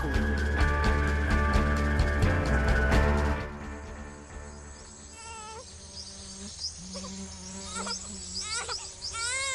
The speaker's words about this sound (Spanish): se entremezclan con los sonidos de la selva amazónica peruana.